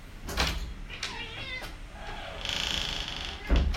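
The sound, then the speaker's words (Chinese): A household pet cat meows a few times in short, wavering mid-pitched calls during a Christian sermon, with no talking. A couple of brief knocking thumps sound at the start and end. “好抱歉啊，我们家的猫咪。”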